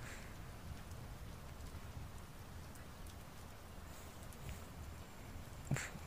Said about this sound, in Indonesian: sorry ya kalau misalnya ini ada gemuruh gluduk di sini lagi hujan nih di tempat tinggal gue